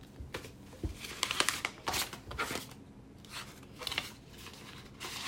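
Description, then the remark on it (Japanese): Rustling and crinkling of paper letters and packaging as a package holding many letters is gone through, with irregular bursts of handling, shuffling and sliding over several seconds and no voices. “ちょっと待ってお手紙もいっぱい入っててどれから見ていいかわかんないんですけど”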